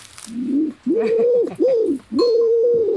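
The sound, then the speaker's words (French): A dove's low, hollow cooing call repeats in three or four drawn-out phrases with brief pauses between them, loud, with no voices present. “Ah, il y a un oiseau qui siffle.”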